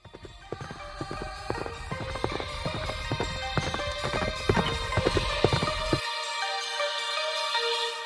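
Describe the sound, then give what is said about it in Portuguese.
Rapid, rhythmic clip-clop sounds like a horse trotting, made by a voice with mouth clicks and a hand over the mouth, repeating steadily for several seconds before stopping, leaving a faint high tone. “Foi com a mão na boca, botar a mão na boca. Assim, é, porque assim, é, o cavalo, o cavalo, a natureza.”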